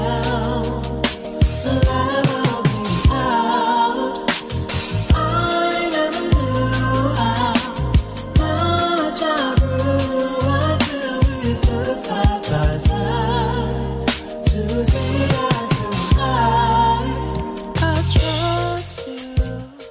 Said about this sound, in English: I'm gonna play y'all a snippet of my favorite song on that album. Let's hear it.